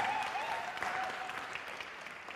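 An audience applauds steadily for the sound team, a dense wash of clapping at moderate volume, with a faint sustained tone ringing through the first second.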